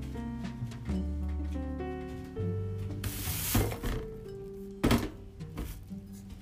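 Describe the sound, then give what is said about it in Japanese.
Soda pours and fizzes into a glass with apple cider vinegar in a short hissy burst, followed by a clunk of the bottle or glass being set down, with soft background music playing throughout. “今日はうんととりあえずリンゴ酢を炭酸で割って飲む”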